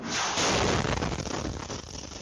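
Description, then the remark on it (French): A powerful explosion of a Russian missile striking a civilian market in the Donetsk region of eastern Ukraine at rush hour bursts out loud, a dense roaring blast that rolls on as a rumbling, crackling tail for about two seconds. No one speaks. “Une puissante explosion.”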